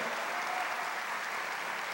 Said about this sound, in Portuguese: Quem quer ser cheio do amor de Deus, aplauda Ele bem forte, de todo o teu coração, de toda a tua vida.